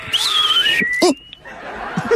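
A clear, sliding whistle tone glides downward and then rises over about a second, fairly loud, with brief vocal sounds and light chuckles around it.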